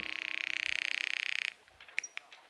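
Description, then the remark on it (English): A telephone rings over the line in one sustained, rapidly trilling burst lasting about a second and a half, then cuts off, followed by a few faint clicks. “Then I sat down and called Janice on the phone.”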